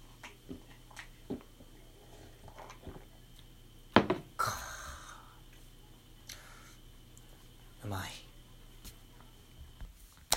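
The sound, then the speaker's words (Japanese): A clink against a cup, then a brief splashy pour of canned juice into the cup, followed by quiet sips and small mouth sounds, with another short burst of liquid noise later. “そして缶ジュースをコップに注いで飲むこと。”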